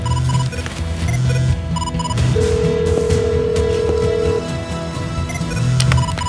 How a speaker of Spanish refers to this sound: El móvil del profesor suena.